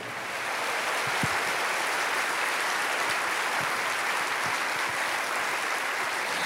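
A crowd applauds steadily in celebration of the Lord, a dense wash of many hands clapping at once at full strength that holds without pause from start to finish.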